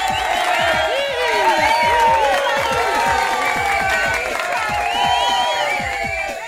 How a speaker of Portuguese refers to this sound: Cadê lá a salva de palmas para as pedinhas?